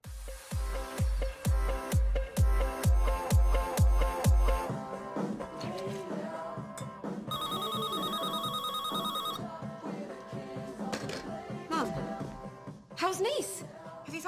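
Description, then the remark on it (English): A pop song plays as a phone ringtone, opening with a steady punchy beat and then continuing as a bright melodic tune with voices talking over it. “We hear it in the background as Rosie as with Rosie's phone rings.”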